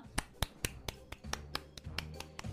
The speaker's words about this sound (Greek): Θέλω να κάνουμε όλοι μαζί τώρα ένα χειροκρότημα